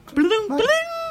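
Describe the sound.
A voice imitates the Tinder match notification with two quick, rising sung tones, the second longer and sliding upward, clear with nothing else around it.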